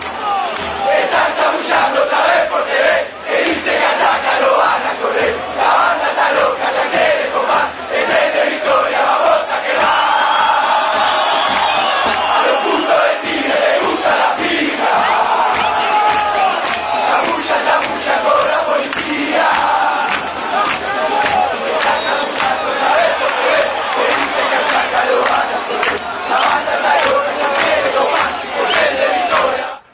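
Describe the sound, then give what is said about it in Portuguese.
A huge stadium crowd of Chacarita football fans chants in unison an unflattering song about Tigre supporters, a loud, dense roar of voices that carries steadily and unbroken for the whole half minute. “som das torcidas”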